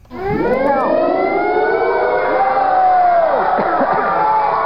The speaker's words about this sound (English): But then suddenly you'll be hearing a air raid siren.